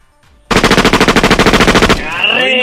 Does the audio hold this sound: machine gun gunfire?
yes